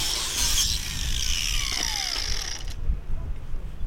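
A steady, raspy scraping of a man sanding a wooden plank for his boat in a harbour, continuous for a few seconds, then stopping abruptly, leaving a low outdoor rumble behind.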